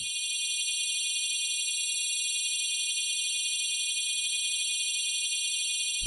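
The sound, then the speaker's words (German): Several steady high sine tones, resynthesized recreations of Zimmermann's beating tones, sound together for about six seconds, their close pitches interfering to give a constant, slightly wavering beating texture, like an electronic alarm drone, with no talking. “Einige dieser Schwebeklänge haben wir für Sie nachgebaut, resynthetisiert.”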